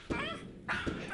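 An agitated dog whines with high, wavering whimpers broken by two short, sharp barks, close by and fairly loud over a steady background hiss.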